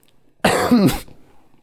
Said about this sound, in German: Und ja, der Husten kommt auch extra mit dazu.